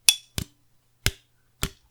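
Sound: clinking drinks together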